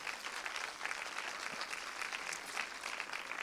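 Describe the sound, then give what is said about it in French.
Steady audience applause at a film screening, welcoming Didier Lestrade, cofounder of the association the film is about: a dense wash of many hands clapping at an even level throughout, with no voices standing out above it. “Alors, oui, vous pouvez l'applaudir.”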